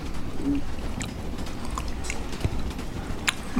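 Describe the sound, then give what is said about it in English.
Wet lip smacking while eating chocolate, a series of irregular moist clicks and smacks over a low, steady background rumble, with no talking. “That's the sound you're hearing of me smacking my lips.”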